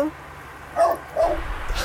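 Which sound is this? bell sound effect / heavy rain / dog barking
dog barking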